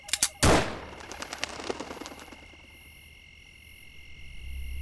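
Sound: gunshot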